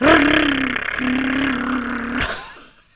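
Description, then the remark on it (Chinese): A voice imitates the rapid rattle of an empty plastic bottle being ridden by a rabbit, a steady, motor-like buzzing drone, briefly broken once and lasting about two seconds, loud and alone before fading out. “那只兔子骑在那个保特瓶上面，就发出这样子的声音”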